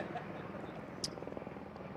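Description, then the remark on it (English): Helicopters drone faintly overhead, their low rotor chop pulsing steadily beneath a soft wash of background noise, with a brief higher hiss about halfway through. “So we would say, if you're watching via live stream, we've got helicopters and everything happening here.”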